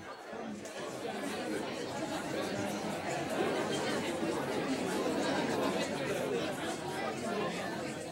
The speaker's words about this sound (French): Que de bruit, que de bruit Cessez tous de caqueter Je sais bien que le XVIIIe siècle est le siècle de la conversation, du persiflage et du marivaudage.